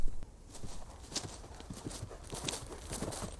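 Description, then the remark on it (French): Steady clip-clop of horse hooves on hard ground as a horse is taken into a wild ravine in the midday heat, a regular walking rhythm of many quick hoofbeats, moderately loud with a faint background hiss. “Un jour, accablé par la chaleur de midi, il amena son cheval dans le ravin sauvage”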